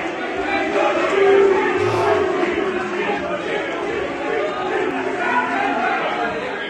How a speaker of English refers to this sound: So this is the Lord's crowd when the players were walking off, I think for lunchtime.